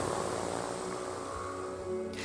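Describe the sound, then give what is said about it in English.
A steady, whirring drone of the propeller of a Pipistrel Velis Electro, a small electric light aircraft, in a small hangar a few hundred metres from an airport terminal, continuous, with a smooth tonal hum and airy rush throughout, no voices present. “Three shiny new Pipistrel Velis Electros, the first electric powered planes to be approved for use by the European Flight Regulator.”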